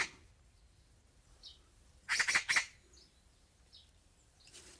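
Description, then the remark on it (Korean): A magpie chatters in a quick burst of harsh, rattling chirps midway through, with fainter calls before and after, heard outdoors against a quiet low background hum. “까치가 노래를 하는 거 보니까요.”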